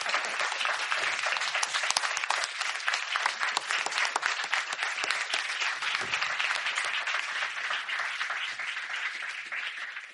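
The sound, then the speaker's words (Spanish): Sustained audience applause for helpers who stand up during a live programme recording, a dense wash of many hands clapping at steady loudness for about ten seconds, tapering only slightly toward the end, with no voices standing out. “Levantaos para que os podamos aplaudir un poco.”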